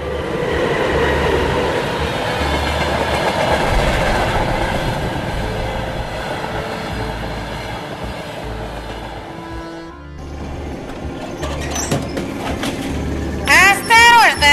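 A train to Petushki departs with a steady rumble and rhythmic clattering of wheels on rails, a brief lull near the end, then high metallic squeals as it carries on.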